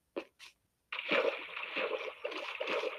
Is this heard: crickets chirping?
no